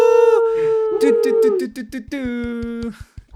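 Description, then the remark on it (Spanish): A voice loudly mimics an air horn: a long sustained blare, then a string of short rapid honks, and a final drawn-out blast ending in a drop, all strained. “Antes tenía una aplicación en el celular que lo único que hacía era ese sonido de la bocina.”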